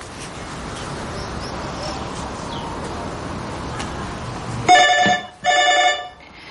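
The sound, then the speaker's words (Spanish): A telephone rings twice in loud, bright, buzzing electronic bursts with a short pause between them, following several seconds of steady hissing room noise with a few faint chirps. “El sonido del teléfono la asusta.”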